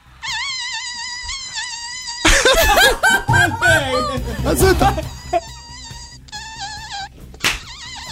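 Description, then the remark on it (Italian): A voice imitates a buzzing fly with a steady, wavering nasal drone for about two seconds, then loud laughter and talking break in, followed by two shorter buzzing bursts. “Riesco a far pure la mosca.”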